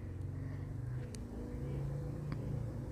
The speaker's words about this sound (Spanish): Voy a dejar que pase esa moto porque está haciendo muchísimo ruido.